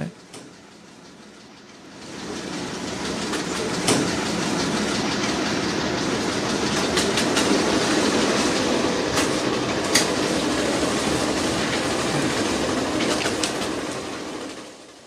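An ATM dispenses cash: a steady mechanical whirr with fast papery flicking of bills, punctuated by sharp clicks, running continuously for about thirteen seconds after a brief quiet start.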